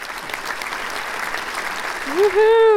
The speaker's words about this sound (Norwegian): Bra applaus der.